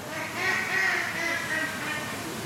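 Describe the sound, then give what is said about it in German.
A group of ducks quacking and chattering steadily toward a terrace, a continuous overlapping racket of nasal calls with no one speaking. “Das wissen die Enten. Resolut schnattern sie Richtung Terrasse.”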